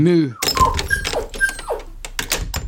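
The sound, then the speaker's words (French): A dog bumps against a window pane, making several dull thumps in an irregular run, mixed with short squeaky, rattling sounds, after a brief whining vocal sound at the very start. “Et c'est vrai que quand il cogne la vitre, ça fait pas le même bruit quoi.”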